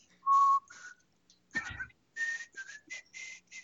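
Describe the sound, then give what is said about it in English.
Someone whistles a short, breathy, wavering tune, a string of uneven notes broken by a brief rush of air partway through. “Your whistling sucks.”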